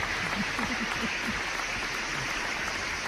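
A crowd applauds steadily for about three seconds, a dense, even wash of many hands clapping with no break, and a faint voice murmurs briefly beneath it near the start.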